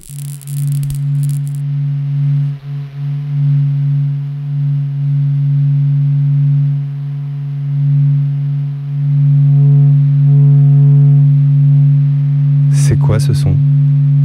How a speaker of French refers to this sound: c'est le son du soleil. Capturé par la NASA. Pendant 20 ans, le bourdonnement bas et palpitant du rythme cardiaque de notre étoile. Ce son a été élaboré après avoir capturé 40 jours de données. De données solaires.